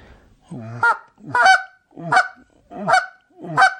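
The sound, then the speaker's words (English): A goose call is blown in five loud, evenly spaced honks, each breaking upward into a sharp cluck, with no talking. “And I know you're not going to get crazy aggressive on a goose oh, call like all. you would for for uh, honkers or anything.”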